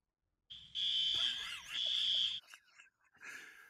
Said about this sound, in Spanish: Chicharra, please. Chicharra, one time.